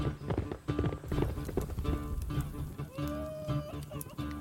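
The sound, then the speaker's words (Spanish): The hooves of Lusitanian warriors' horses gallop at great speed, pounding in a fast, steady, loud rhythm, layered over a dense, sustained backdrop of tones that continues throughout. “El febril ritmo es acompasado por la gran velocidad de sus caballos.”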